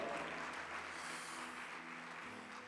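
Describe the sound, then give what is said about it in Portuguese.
An audience applauds to the Lord steadily in a dense, continuous wash of clapping, with a low sustained hum of music beneath it throughout. “Dê um brado ao Senhor e aplaudo nesse lugar, e aplaudo nesse lugar.”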